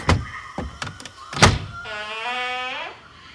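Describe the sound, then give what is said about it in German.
The door of a strange house is worked open by its doorknob with several sharp clunks and knocks of the latch, then a long, rising creak as it swings slowly open, with no voices. “Ich, ich mache jetzt die Tür auf.”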